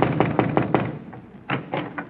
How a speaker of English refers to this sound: Knock on the door and see if she's home.